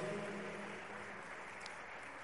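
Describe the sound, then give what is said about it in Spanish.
An audience applauding steadily, a dense, even wash of clapping that holds at a fairly constant level for a couple of seconds with no voices standing out. “Le damos un fuerte aplauso a él.”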